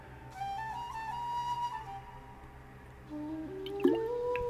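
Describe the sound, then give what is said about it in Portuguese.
Someone takes a sip of water and swallows, a quiet gulp with faint liquid squishing, set against a low hum and no talking. “Pausa para o gole de água, que é uma necessidade que acabou de aparecer, que é sede.”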